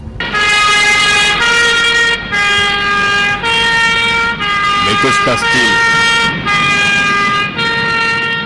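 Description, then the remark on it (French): A loud ambulance siren wails in a steady two-tone pattern, alternating high and low pitches every half second or so, while a person speaks briefly underneath. “Une ambulance Mais qu'est-ce que ça veut dire”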